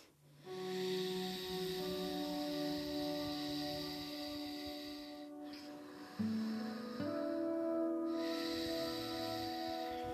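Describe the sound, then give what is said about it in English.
Slow, steady ujjayi (victorious breath) breathing in and out through the nose with the mouth closed and the back-of-throat muscles constricted, a soft, airy hiss like surf on the exhale, rising and falling in long cycles over a quiet, sustained musical drone. “Maybe you can hear that slight sea wind sound on the exhale. That's the back of the throat, those muscles are constricting, creating just a little sound, almost like a sea wind sound.”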